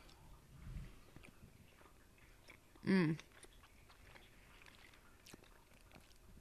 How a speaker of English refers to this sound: Did you hear the slapping of my lips It's so on good. the microphone? and we love it. It's a great ASMR moment.